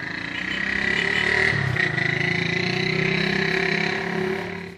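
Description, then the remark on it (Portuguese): A motorcycle passes by outside, its engine droning steadily, swelling slightly before holding a constant, fairly loud rumble with a faint whine throughout, and no talking. “Ó, galera, acabou de passar uma moto.”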